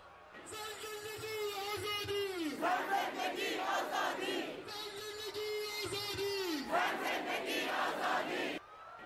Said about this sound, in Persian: یه دفعه دیدم یه سری از مردم دارن شعار میدن